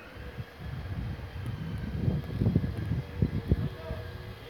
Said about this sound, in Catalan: Soroll de motor elèctric com de segadora de setos.